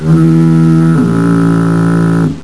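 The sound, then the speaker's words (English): A loud, deep foghorn blares, its steady droning note stepping down to a lower pitch partway through, then cutting off after about two seconds. “those two foghorn blasts do not count towards the contest.”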